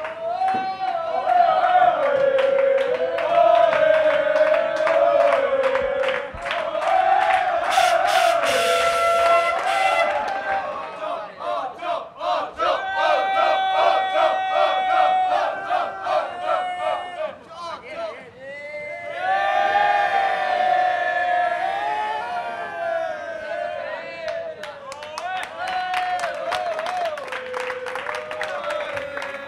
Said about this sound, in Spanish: Sonidos de un gran premio mágico, ambiente de un box de euforia, 888, que todavía no hablaban de los ocho títulos, sino de las ocho victorias.